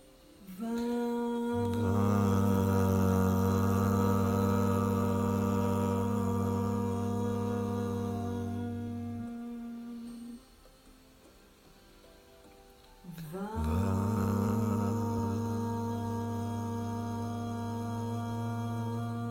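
A group of voices chants a single drawn-out mantra syllable in unison, the mantra of the second chakra, sung three times together. A low droning tone holds for several seconds, there is a pause for breath, then a second long chant begins.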